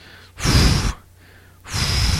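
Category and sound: vocal imitation, imitated heavy panting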